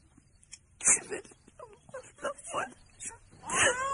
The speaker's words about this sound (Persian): اون بچه گریه میکنه